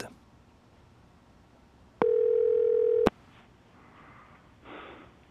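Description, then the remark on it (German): A single loud, steady telephone ringing tone as a call is placed, lasting about one second, a flat mid-pitched buzz that starts and stops with clicks, set against a quiet background with faint breathing or rustling afterward. “Da hat sie seine Nummern ausgesucht und ihm angerufen.”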